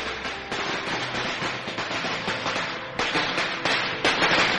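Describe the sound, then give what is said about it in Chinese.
A dense, continuous crackle of firecrackers set off on New Year's Eve in Fengshan village, popping in rapid succession, with sharper, louder bangs breaking through every second or so. No voices are heard. “鞭炮声中，不知谁连续吼了几嗓子，这几嗓子就如平地惊雷，炸乱了全村过年的节奏。”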